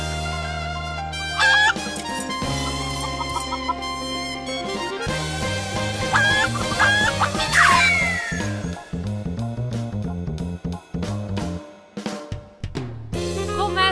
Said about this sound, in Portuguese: Vai, ô, produção, toca a abertura a aí, vai. Chama a vinhete.